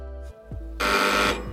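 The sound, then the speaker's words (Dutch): A doorbell rings at the door of Sfeer op maat, an event and set-building firm in a large warehouse in Amsterdam West: a short electronic chime with steady tonal notes, followed by a louder burst of bright, buzzing ringing that holds for about half a second before fading. “Zo, dat is de bel.”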